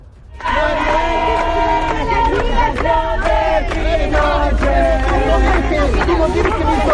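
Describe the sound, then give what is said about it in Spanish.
A loud, dense crowd of many voices shouting and chanting together at a school protest in the morning, steady and overlapping throughout with raised, strained calls rising above the constant roar. “hay ambiente de lo que ocurrió durante esta mañana y que pasamos a, a escuchar a continuación.”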